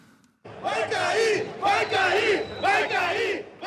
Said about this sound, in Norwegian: Den vil falle, den vil falle roper tusener av mennesker i bydelen Copacabana her i Rio. Det er landets regjering de sikter til.